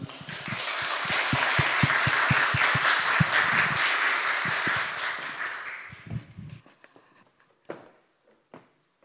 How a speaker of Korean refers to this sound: 나오실 때 편하게 말씀 그냥 전해달라고 마음껏 전해달라는 마음으로 우리 박수로 우리 환영하겠습니다.